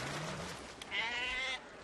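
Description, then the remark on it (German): A sheep bleats once in a loud, wavering cry lasting about half a second, preceded by a lower, softer bleat from another animal, with no one speaking, as sheep are washed in Atlantic seawater. “Vielleicht kann hier deshalb nicht vom Schweigen der Lämmer die Rede sein.”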